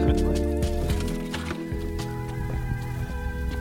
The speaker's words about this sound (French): le coq du voisin qu'on entend est en retard.